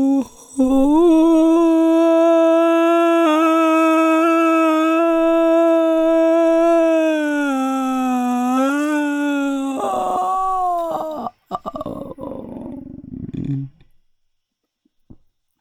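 A group of people moan together in one long, loud, sustained polyphonic drone with slowly wavering pitch, then break into rougher, breathy sounds before trailing off into silence.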